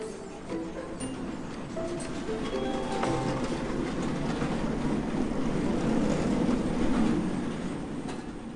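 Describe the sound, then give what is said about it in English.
A massive automatic book sorter with a huge conveyor belt and scanner runs steadily in a library warehouse in Long Island City, Queens, processing books and DVDs: a loud, continuous mechanical rumble with rattling clatter and faint whining tones throughout, no voices. “This is the sound of a massive scanner in a warehouse in Long Island City, Queens.”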